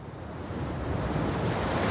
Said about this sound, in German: Die Wellen kommen näher, die Luft über dem Wasser ist feucht.